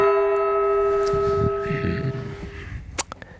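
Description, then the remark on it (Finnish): A single bright bell chime marking a topic change on a Yle Puhe radio program rings out and slowly decays, its sustained tone fading over a few seconds, followed by a sharp snapping crack near the end. “Näin, ne on kellot tikittänyt taas jokaisen aiheen kohdalla”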